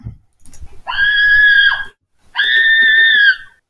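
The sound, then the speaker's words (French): A woman screams twice, each scream a loud, sustained, high-pitched cry lasting about a second, separated by a brief pause, with no talking. “je pense que je choisirais le son numéro 1 euh, de, la, de la femme qui crie”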